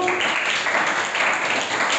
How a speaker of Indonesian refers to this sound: terima kasih banyak sudah mendengarkan tapi tepuk tangan buat semuanya dong oke